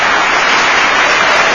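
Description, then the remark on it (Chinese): A burst of audience applause on the radio show 海洋现场秀 (Haiyang Live Show), loud and steady, with dense clapping blending into a continuous crackling wash for about a second and a half, with no voices. “朋友们，听到声音的朋友们，你们掌声呢？”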